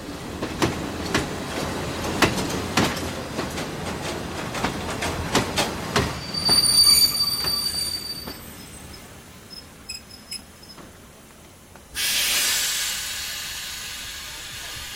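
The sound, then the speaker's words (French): A train arrives at a platform, rolling in with rhythmic clacking of wheels over rail joints, then high metallic squeals as it brakes, ending in a loud hiss of released air. No voices. “Eh bien, messieurs, vous avez la chance d'assister à une arrivée à qui.”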